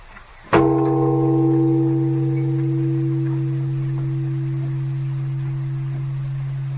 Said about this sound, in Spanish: Y ahora haremos sonar una campana y pediremos un deseo.